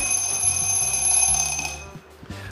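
An alarm clock rings with a steady electronic beeping, fairly loud, sounding continuously before cutting off near the end of the short clip.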